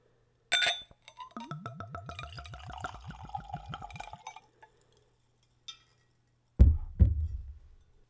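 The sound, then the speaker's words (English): A clink of glass, then about three seconds of Zubrovka spirit glugging steadily from a bottle into a clean Glencairn glass, poured neat at room temperature for a tasting, followed by a faint tap and two heavier knocks as things are set down. “I have a pair of clean Glencairn glasses. That's what I'm going to use for the tasting.”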